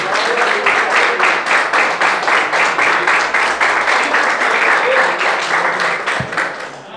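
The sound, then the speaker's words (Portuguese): An audience at an evening church service claps together to praise the Lord in a dense, steady burst of applause that stays loud and even for several seconds before tapering slightly at the end, with no talking over it. “As palmas louvem ao Senhor nesta noite.”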